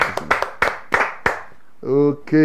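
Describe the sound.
A group claps to acclaim the name of the Lord during a prayer, in a loose, uneven burst of sharp slaps, then voices break into loud, sustained cheering shouts that ring out at the end.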